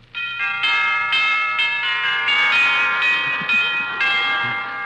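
An elaborate doorbell chime at the front door of an impressive old colonial mansion rings out loudly, a melodic sequence of bright bell tones struck one after another over about five seconds, each note ringing and overlapping the next, with no voices.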